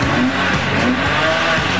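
A powerful engine of a big red Ferrari sports car, driven by Ana Maria Braga up a slope, roars loudly, revving in a continuous, throaty drone with a slight rise and fall in pitch, and no voices.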